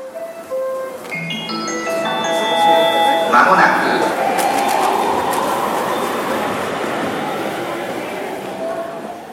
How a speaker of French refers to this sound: Eh ben, c'est parti pour le jingle.